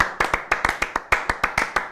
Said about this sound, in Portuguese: Aqui cabe uma vírgula sonora de palmas. Uhul! Bateu uma salva de palmas aqui pro profissional.